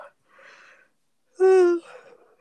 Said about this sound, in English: Sorry, guys, I'm not yawning because I'm bored. I'm just very tired.